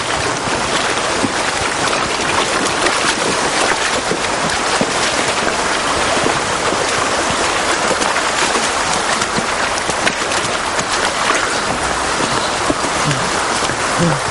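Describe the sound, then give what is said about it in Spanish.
Three people wade along the bed of a shallow stream with the water above their ankles. Steady, loud rushing and splashing water fills the whole recording, with a dense hiss and no clear pauses or voices. “Los tres caminan por el cauce con el agua llegándoles por encima de los tobillos.”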